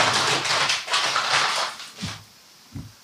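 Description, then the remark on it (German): Crinkling and crackling of a plastic water bottle being handled and twisted as it is opened, its cap working loose in short noisy bursts, followed by a couple of soft taps, fairly quiet. “Und ähm, ich würde jetzt einfach mal eine Flasche aufmachen, aber Sie dürfen natürlich.”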